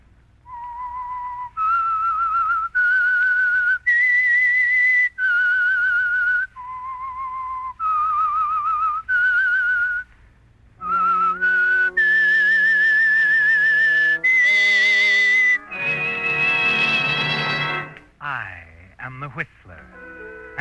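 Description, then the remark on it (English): A lone, eerie whistled melody of long, clear sustained notes rises and falls for about ten seconds, then a full orchestra swells in and plays the theme on to a dramatic close: the opening whistle theme of the Signal Oil program The Whistler. “That whistle is your signal for the Signal Oil program, The Whistler.”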